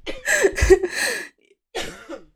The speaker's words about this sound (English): Excuse me. You've been being very kind and muting your microphone every time you cough, and I just didn't.